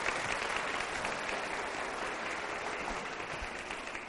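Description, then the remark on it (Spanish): An audience applauds Jesus Christ steadily, a dense wash of clapping that holds at an even, fairly loud level for several seconds with no voices rising above it. “Y démosle un fuerte aplauso porque Él va a establecer algún día la justicia en esta tierra.”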